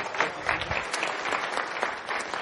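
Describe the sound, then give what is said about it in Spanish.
An audience applauding a participant who gave the first answer: a steady, dense patter of many hands clapping at once, fairly loud and even throughout, with no one speaking over it. “Un aplauso para ella, ¿sí?”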